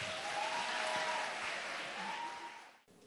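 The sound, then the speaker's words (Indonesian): Steady audience applause welcoming a speaker, a dense wash of many hands clapping at moderate volume, with a faint sustained tone beneath, cutting off abruptly near the end. “Mari bersama-sama kita menyambut ke Alex dengan tepuk tangan.”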